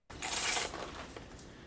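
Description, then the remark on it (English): An archerfish blasts a stream of water from its mouth at an insect or spider on a branch or leaf: a sudden hissing rush like a jet squirting out, loudest for about half a second and then settling into a softer, steady splashing flow. “Once one of these spiders or insects crawls or lands on a branch or leaf near them, they take aim with their powerful super soaker mouth and blast a stream of water directly at their prey.”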